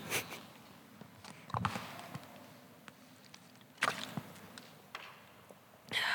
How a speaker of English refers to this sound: I'm going to take a sip of water.